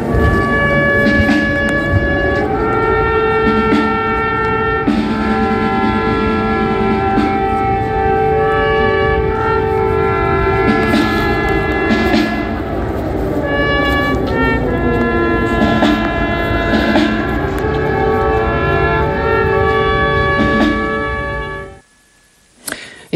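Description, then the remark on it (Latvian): A loud, sustained air raid siren wails over brass band music playing a slow, mournful funeral march at a funeral procession in Ukraine for a soldier killed at the front, heading to Maidan square; the two sounds overlap and trade prominence for about twenty seconds before cutting off abruptly. “Paklausīsimies fragment, kurā dzirdams, kā gaisa trauksme mījās ar, ar šo sēru delegācijas maršu.”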